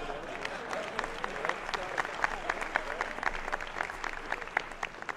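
Steady audience applause for Dudu Camargo, a dense patter of many hands clapping at an even, moderately loud level for about five seconds, with a faint murmur of crowd voices mixed in.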